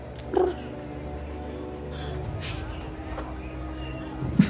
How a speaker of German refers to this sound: Er schnurrt. Das macht mal häufig.